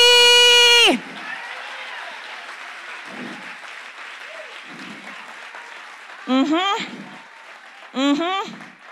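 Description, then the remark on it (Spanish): An audience applauds in a steady, dense wash of clapping for several seconds, opening with a loud sustained shout and punctuated by two rising cheers or whoops near the end. “Ay, alguien puede aplaudir aquí.”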